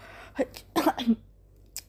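A few short, wet snuffling sniffs close to the mic, bunched together with a soft final snort, with no talking around them.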